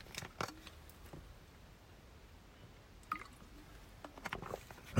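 Someone takes a quiet sip of water in the early morning: soft, wet slurps and gulps in a few brief bursts, with near silence between them and no one talking.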